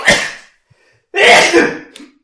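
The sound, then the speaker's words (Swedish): A loud sneeze bursts out, then after a short pause comes a second, longer explosive sneeze with a breathy, spluttering tail, with no talking. “Vänta, jag måste nysa.”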